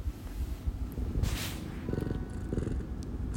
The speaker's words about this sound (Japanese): 聞こえたかなうちの猫ですつみれと言います女の子ですその子が膝にいるということです。